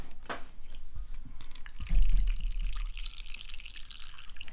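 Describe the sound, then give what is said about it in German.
Tea pours into a cup, a soft trickling splash that swells for about a second midway, with faint dripping and handling noises around it and no talking. “Oh, jetzt mache ich ein bisschen ASMR, Tee einschenke ASMR.”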